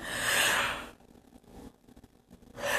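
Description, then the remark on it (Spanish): A breathy yawn: a long drawn inhale that fades into a quiet pause, then a soft exhaling breath at the end, with no talking. “perdón, disculpen por el bostezo.”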